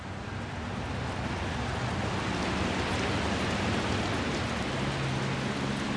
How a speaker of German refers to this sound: Es regnete Stumpfsinnigkeit. Es regnete Kummer. Es handelte sich um jene Sorte von Regen, der viel zu feucht ist, um einen Regen, der in großen Tropfen herabfällt und platscht, um einen Regen, der einem senkrechten Meer mit Schlitzen darin gleicht.